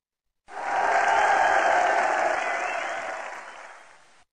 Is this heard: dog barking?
no